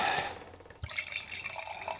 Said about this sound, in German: Ich habe das äh, Gläschen hier gleich parat. Dann kann man ja oh, ein kleines Pling, damit man das auch hört, dass hier nicht einfach vulgär aus der Flasche gesoffen wird. Und äh, gießen wir mal einen schönen Schluck davon ein.